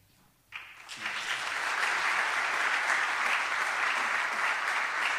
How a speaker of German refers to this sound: Ja, einen kräftigen Applaus, ihr hört es, wir sind dankbar für eure Arbeit.